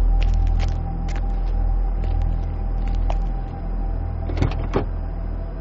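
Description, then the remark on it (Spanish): A car door opens slowly, with small mechanical clicks and a latch clunk near the end, over the steady low hum of an idling engine. “Después, abrió la puerta muy lentamente y descendió del coche.”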